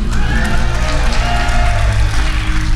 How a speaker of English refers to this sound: This this show will actually be broadcast as our Halloween episode, so they will hear your applause even though they are not here tonight.